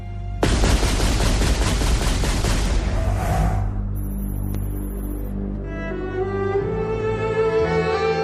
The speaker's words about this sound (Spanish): alguien se le acercó, le apuntó con una escopeta y le dejó seco le mató de varios disparos.